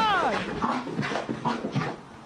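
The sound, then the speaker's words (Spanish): A dog lets out a short, high, wavering whimper at the start, followed by softer whiny sounds mixed with people talking. “Es un perro con alma de gato.”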